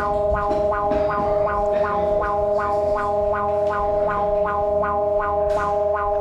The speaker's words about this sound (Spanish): Alerta sísmica. Alerta sísmica.